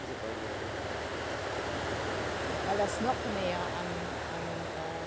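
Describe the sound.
A steady, broad rush of the Ahr river flowing at Bad Neuenahr-Ahrweiler, Germany, fills the background. Faint murmurs of voices drift through the wash of noise.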